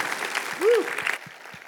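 An audience claps in a dense, steady burst, with a short rising-and-falling whistle cutting through midway. The applause then drops off abruptly, leaving a few scattered soft claps.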